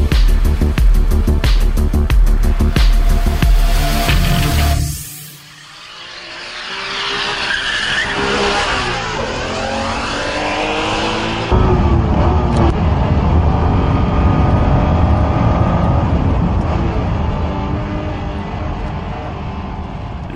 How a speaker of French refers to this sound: son que vous venez d'entendre est celui de la NSX de première génération, alors que la voiture est pilotée par le regretté Ayrton Senna